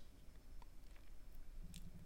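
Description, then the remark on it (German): Soft squelching and wet tearing as a man bends down and pulls a dripping clump of peat moss from the ground, with a few faint squishy crackles over a low, muffled background. “Dann bückt er sich und zieht ein tropfendes Büschel Torfmoos aus der Erde.”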